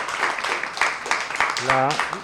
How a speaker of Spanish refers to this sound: Venga, Muchas, gracias. le damos un aplauso